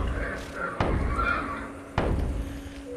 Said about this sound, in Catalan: Primer un, després un altre, i poc després tots els cavalls denunciaven amb renills la intrusa que havia entrat a les cavallerisses.